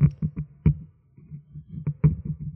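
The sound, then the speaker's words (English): A sci-fi bridge door is gradually forced open, grinding with a series of deep, heavy clunks and a low electronic hum pulsing beneath them, fairly loud with no voices. “the bridge door is is uh, being gradually forced open.”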